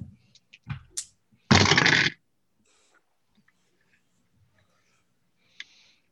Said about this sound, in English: I put my dice down when I heard Anthony's clink. So I put down one die, but heard like four fall.